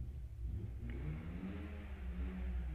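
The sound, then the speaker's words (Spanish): A car engine revs with a steady, heavy low-frequency rumble that holds throughout, fairly loud, with no voices over it. “Por ejemplo, el carro que estamos escuchando está mostrando su verdadera esencia.”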